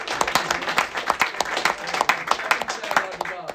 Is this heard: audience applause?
yes